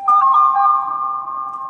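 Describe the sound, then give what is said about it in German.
A short recurring musical jingle from a film: a few quick bright notes, then a steady held tone that lingers for over a second, loud and clear with no voices. “Immer dieses, das ist wie so ein Jingle.”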